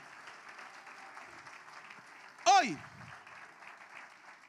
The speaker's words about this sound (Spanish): Dale un fuerte aplauso a Jesucristo.